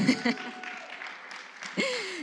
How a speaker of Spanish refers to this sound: Y aplausos.